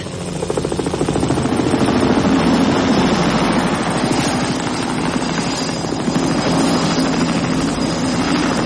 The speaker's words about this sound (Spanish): Un helicóptero lo sobrevuela.